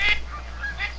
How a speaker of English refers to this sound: I, I think I hear a, a, a wood duck, and uh, I think I hear some Canadian geese in the background. Hear that? It might be a. Uh, Those are blue geese.